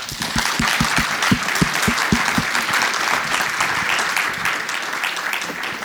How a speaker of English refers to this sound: Round of applause for this.